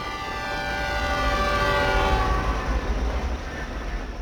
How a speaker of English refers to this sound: Or take, for example, the word Zug. Hopefully, the image of a train comes to mind, but you can fill things out even more by imagining the sounds of a train.